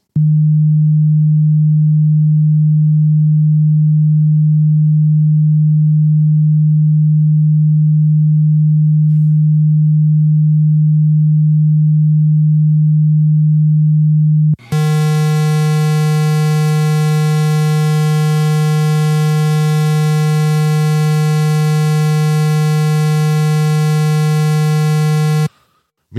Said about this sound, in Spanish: Eh, entonces hay otro que es The Brown Noise. Vamos a ver si voy a. hold Ok, este es otro. Este es otro tono. Que también le atribuyen que a usted le dan ganas de ir al baño después que lo escuche.